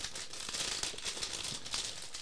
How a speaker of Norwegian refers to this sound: Bråker litt i papiret, da.